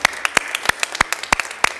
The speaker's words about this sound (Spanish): Regálate un fuerte aplauso, pandita. Regálate un fuerte aplauso.